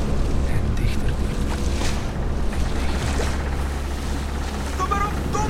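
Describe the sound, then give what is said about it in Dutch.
A huge ocean wave, as big as a mountain, surges in during a storm at sea: a loud, unbroken roar of rushing water and wind over a deep, rumbling low end, steady throughout. “Plots zag Kapertijn een golf zo groot als een berg.”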